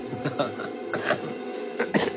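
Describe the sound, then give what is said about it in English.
A series of short, rough coughs caused by smoke, coming in uneven bursts with brief pauses between them, over a faint background murmur. “And do you remember how the smoke would always get in your eyes and how it would follow you around and, and make you cough and sneeze?”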